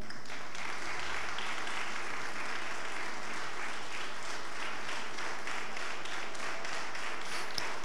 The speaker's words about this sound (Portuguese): Fique de pé no nome de Jesus e aplauda ao Senhor, porque ele é bom.